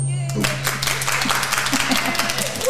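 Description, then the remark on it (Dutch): An audience applauds steadily, a dense wash of many hands clapping at an even loudness for the whole stretch, with a low steady hum running underneath. “Nog een keer applaus.”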